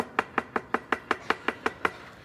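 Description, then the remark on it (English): A quick, steady series of about nine sharp knocks on the front door of a house, evenly spaced, with no voices around them. “I mean, seriously, like somebody's knocking on the door and running away.”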